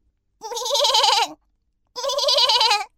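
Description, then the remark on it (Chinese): A flock of sheep in a yard bleating: two long, loud, wavering baa calls, each lasting about a second, separated by a short pause, with no talking. “院子里的羊群朝着懒惰虫咩咩叫。”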